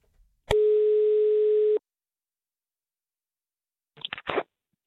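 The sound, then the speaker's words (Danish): A single steady ringback tone of an outgoing phone call to Kim Christiansen, former Danish People's Party member of parliament, hums for just over a second, followed by silence and then a brief rustle as the line seems to pick up. “Ordene de faldt, da vi ringede til ham for at høre hans syn på situationen i partiet.”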